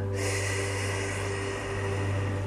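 A long, slow exhale during a guided meditation breathing exercise, a steady airy rush of breath lasting a couple of seconds over a low background hum, with no talking.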